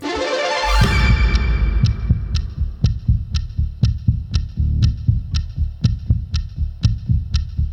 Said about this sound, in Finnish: Laitetaanko pelikello käyntiin? Laitetaan. Se lähtee tästä.